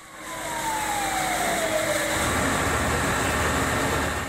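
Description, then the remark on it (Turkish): A fire engine's siren wails steadily, its tone sliding downward as the vehicle passes, over a heavy rumble of engines and traffic that grows louder toward the end. It is one of the fire engines sent from several districts to a fire at a two-storey historic toy museum. “Yardım için birçok ilçeden itfaiye aracı gönderildi.”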